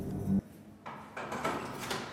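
A door opens: a brief low thump, then a series of clicking, scraping handle and hinge sounds in a quiet, windowless visiting room.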